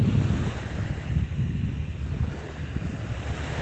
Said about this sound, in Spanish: doy gracias porque estoy aquí al lado del mar, en la playa, escuchando los sonidos de las olas.